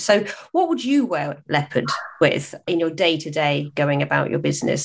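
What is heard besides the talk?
dog barking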